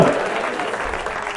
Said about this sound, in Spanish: Denle el aplauso, aleluya.